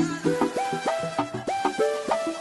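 A newly released song plays, with bright sustained tones and repeated rising melodic slides over a steady, rhythmic accompaniment, loud, no talking.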